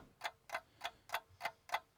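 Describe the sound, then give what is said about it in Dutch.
A clock ticks steadily, about seven crisp ticks spaced evenly roughly every third of a second, moderately quiet, with no voices over it. It is a running 20-second countdown timer. “ja, eh, en hij is nu aan het lopen. Kijk, je hoort de, de klok.”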